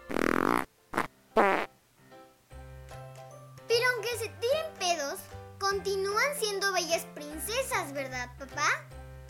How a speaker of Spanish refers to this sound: Se estaba echando unos buenos pedos.